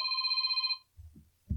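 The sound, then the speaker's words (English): A phone rings for an incoming call with a bright, rapidly warbling electronic trill that stops abruptly after under a second, followed by a couple of low, muffled thumps. “Sorry about the ringing phone.”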